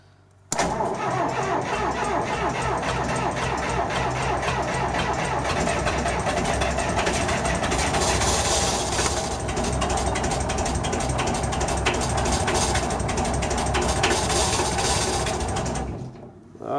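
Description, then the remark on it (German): A tractor engine cranks on a cold start, its starter grinding in a fast, steady mechanical rhythm for about sixteen seconds, loud, with no voices. “Ich habe so gedacht, sie verhält sich dann manchmal wie ein Treckermotor im Kaltstart.”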